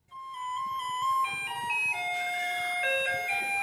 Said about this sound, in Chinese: 垃圾车来了！ 呵，现在是倒垃圾的时间。